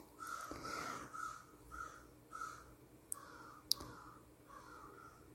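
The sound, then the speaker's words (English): Crows caw repeatedly outdoors, a series of harsh calls around a kilohertz band, followed by a couple of sharp clicks; no one speaks. “I hope the crows are not too grating.”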